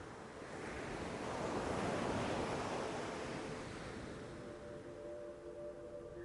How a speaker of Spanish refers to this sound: Es como el sonido de la ola cuando se deshace en la arena de la playa.